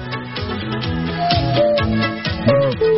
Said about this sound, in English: So the idea of this music is to clear your mind, clear your palate for something else.